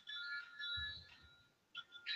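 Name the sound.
mobile phone ringing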